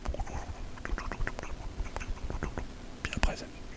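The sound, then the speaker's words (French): A voice imitates the sound of a microphone sinking into water, making soft whispery, wet clicking and bubbling noises for a few seconds. “C'est-à-dire, tu j'entendais le bruit du micro qui descendait dans l'eau. Ça faisait.”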